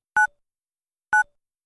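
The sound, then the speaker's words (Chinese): Two short phone keypad tones, evenly spaced about a second apart, each a bright dual-pitched beep with a quick decay, sounding alone with silence between them, as a mobile phone is dialed to call the police. “树懒后知后觉地反应了过来，接着摸出自己的那部唯一没有被抢走的手机。”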